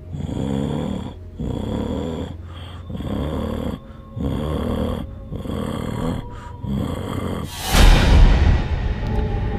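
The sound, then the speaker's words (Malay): A woman sitting with her head bowed on a sofa makes low, guttural groaning moans that repeat in a steady rhythm, about six drawn-out pulses with short breaks, fairly loud, ending in a harsher, louder rasping burst. “Dia tunduk eh Kemudian dia sedang macam membuat suara mengerang.”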